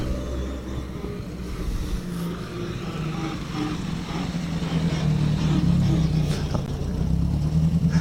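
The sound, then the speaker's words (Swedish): An Opel Ascona rally car engine rumbles steadily at low pitch as the car rolls in at the stage finish, swelling slightly louder toward the end, with a faint hiss of background noise and no clear talk. “Opel Ascona V i målet.”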